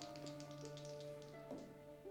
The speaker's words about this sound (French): Je fais donc un, dé, un jet de dé avec avantage, je lance 2 dés 20. J'ai un 8 et un 17, je vais conserver le 17 pour un total de 23 sur mon test.